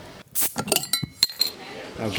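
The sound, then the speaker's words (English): Glasses clink together in a toast welcoming a guest back to Japan, a few bright, ringing taps, mixed with brief clatter and faint murmuring voices. “Thank you for having me. Cheers to you.”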